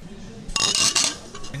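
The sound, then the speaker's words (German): Full glasses clink together in a toast, a quick cluster of bright, ringing knocks lasting about half a second, fairly loud, over a faint background murmur. “Ja, das klang nach vollen Gläsern, würde ich sagen.”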